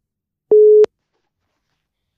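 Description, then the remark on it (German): A single short, steady telephone tone sounds once, bracketed by faint clicks, then the line falls silent, like an outgoing call to a Steelers fan ringing at the other end. No one speaks. “Und äh, ich rufe den jetzt mal an”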